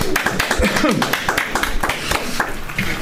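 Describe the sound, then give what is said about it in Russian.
Audience applause, a dense, steady patter of many hands clapping that runs throughout, with a few voices calling out underneath. “Это такие же аплодисменты.”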